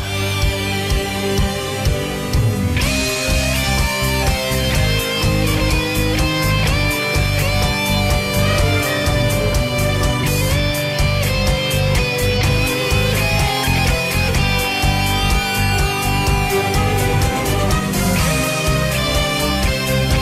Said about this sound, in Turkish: Hani bir yandan müziği duyunca Behzat Ç'nin müziğini duyunca insan bir hakikaten böyle bir tüyleri diken diken oluyor